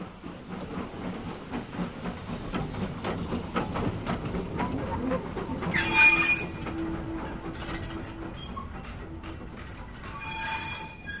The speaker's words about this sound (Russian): Поезд умчался.